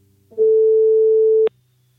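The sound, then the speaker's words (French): A single steady telephone ringback tone sounds clearly for about a second while placing a phone call to a brother on 20 March, then cuts off with a sharp click, as if the call is picked up. No one speaks. “Le lendemain, le 20 mars, je tente à nouveau ma chance au téléphone.”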